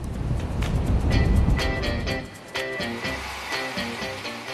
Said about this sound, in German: Hier zur Verdeutlichung. Der Föhn erzeugt künstlichen Wind und damit Wellen.